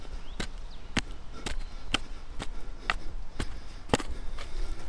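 A small hole being dug in the ground in the centre of a clearing, cleared of leaves, to hold a small campfire with little smoke: about ten sharp strikes into the earth at a steady, unhurried rhythm, with a faint outdoor hiss between them and no voices.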